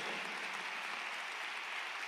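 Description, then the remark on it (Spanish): An audience at a church service applauding together in praise of God, a steady wash of many hands clapping that holds evenly for the whole couple of seconds, with no voices over it. “Démosle un aplauso a nuestro Dios, nos regocijamos con eso.”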